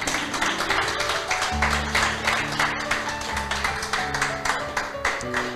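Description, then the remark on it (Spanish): An audience claps steadily and loudly as applause for the Lord, a dense wash of hand claps continuing throughout, with sustained keyboard chords playing underneath. “Aleluya, denle un aplauso al Señor.”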